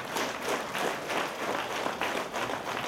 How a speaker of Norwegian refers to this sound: Men der var det jo stående, stående applaus, og jubelen sto i taket.